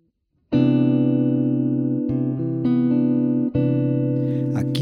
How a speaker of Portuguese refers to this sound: o acorde de Dó com sétima maior e nona. Eu omiti a nota Sol porque no violão e na guitarra, às vezes não é possível você manter o acorde em posição fechada, ou seja, tocar simultaneamente as notas nesta ordem.